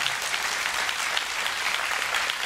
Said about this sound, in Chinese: 愿意的拍手把荣耀归给主，好不好？